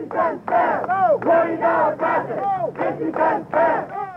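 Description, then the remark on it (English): A crowd of bus riders protesting a scheduled fare increase at City Hall shouts loudly in rhythmic bursts, roughly twice a second, demanding a fare rollback, their overlapping voices merging into an angry, chant-like roar. “Crowd of bus riders angry at Thursday's scheduled fare increase gathered over at City Hall today to demand a fare rollback.”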